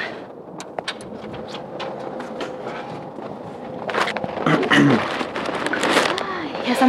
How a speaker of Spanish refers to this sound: Estamos saliendo del edificio. Oís el eco de nuestras escaleras.